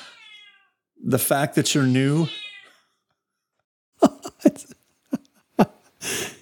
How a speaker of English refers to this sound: I think my cat, That's a cat. Even, my cat has strong feelings about this too, apparently.